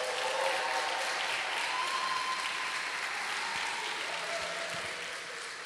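A crowd applauds steadily for the speaker's leader, a dense wash of clapping hands that stays loud and even for several seconds before easing off slightly at the end, with a few faint voices mixed in.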